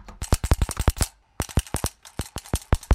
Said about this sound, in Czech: Co je to za zvuk? To je zvuk vadasky přístroje, kterým se zjišťovalo elektrické napětí v síti. Můžeme pro naše posluchače popsat, jak vypadá taková vadaska? Ona je poměrně malá. Tady se vám vejde dokonce do kapsy u montérek. Je černé barvy.